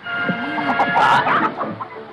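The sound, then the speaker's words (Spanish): A turkey being caught in a Christmas scene from Gone with the Wind gobbles in a rapid, agitated burst of warbling calls lasting a couple of seconds over a steady background hum. “Está cogiendo un pavo.”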